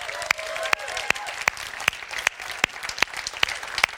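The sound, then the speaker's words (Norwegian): Audience applause for a man seated at the front, settling into steady rhythmic clapping, with sharp, evenly spaced claps a bit faster than twice per second over a softer bed of scattered hand claps, and a faint voice briefly underneath at the start. “Altså, Gi mannen en applaus for meg en gang jeg mener det.”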